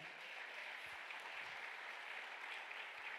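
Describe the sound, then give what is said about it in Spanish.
A crowd applauds steadily, a dense wash of many hands clapping at once, sustained and fairly loud throughout with no pauses and no speech over it. “Del otro aplauso fuerte.”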